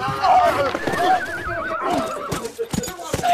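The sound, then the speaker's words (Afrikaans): A horse whinnies loudly, its high, quavering cry wavering for a couple of seconds amid clattering commotion, with voices mixed into the busy background. “Ek wens hy het die perd nie so ongenadig geslaan nie.”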